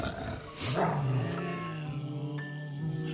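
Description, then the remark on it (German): A dog growls low and steadily, a deep rumbling sound that swells near the start and then holds on without any clear sharp barks. “Das ist ein Hund.”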